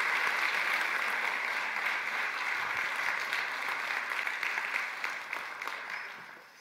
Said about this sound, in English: Can we clap for our friend?